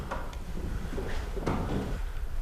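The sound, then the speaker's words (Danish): A double door is pulled open, giving a few wooden clunks and a latch click over a low, steady background rumble, with no talking. “Der er sådan en dobbeltdør.”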